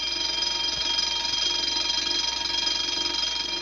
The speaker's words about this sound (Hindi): तभी उस क्षण सभी मेहमान इस बात पर एक मत थे कि उसी समय सारी बत्तियां बुझ गई और सारा घर अंधेरे में डूब गया और तभी घर अनेकों और अलार्मों की घंटी से बज उठा